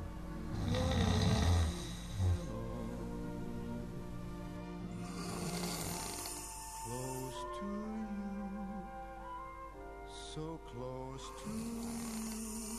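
A man snores steadily in his sleep at 1 a.m., with loud, rasping breaths that buzz and shift in pitch from one snore to the next. No one speaks.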